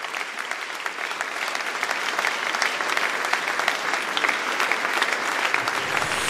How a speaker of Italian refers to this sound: E il teatro di Macerata e Musicultura gli fanno questo applauso.